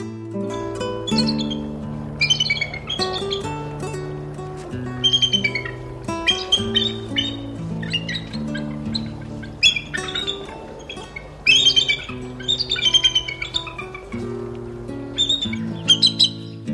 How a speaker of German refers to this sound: Das war der Weißkopfseeadler.